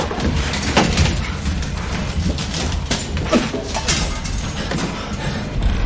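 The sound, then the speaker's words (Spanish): A group of zombies pound on a door trying to get in, a run of irregular, heavy thuds and bangs that repeat throughout, over a loud, constant, dense background din. “Un grupo de zombies golpean la puerta intentando entrar.”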